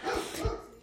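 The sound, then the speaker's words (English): A dog named Felipe barks twice in quick succession, sharp, with a short pause between the barks, because he sees people in the window; no one is talking. “my lovely dog's name Felipe is barking because he sees people in the window”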